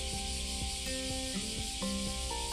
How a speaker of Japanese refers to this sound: セミの音がさらにわしゃわしゃ言ってきましたクマゼミですねこれは